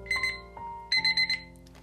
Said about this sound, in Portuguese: Foi então que o despertador tocou